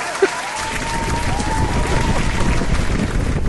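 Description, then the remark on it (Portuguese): Sustained applause for Barroso, a Brazilian scientist, fills the whole stretch, a dense, steady wash of many hands clapping with crowd murmur mixed in and a faint wavering tone drifting through the middle. “Palmas para ele. Palmas.”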